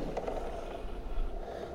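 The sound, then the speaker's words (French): A steady mechanical whirring with faint ratcheting clicks from the shoulder joint of a robotic exoskeleton moving with a person's arm strapped into it, at low volume without speech. “Ça, c'est le bruit de son épaule.”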